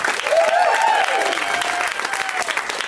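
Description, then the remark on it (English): A comedy show audience applauds steadily, dense clapping at a strong, even level, with a faint voice-like tone sliding underneath partway through. “Yes, clapping.”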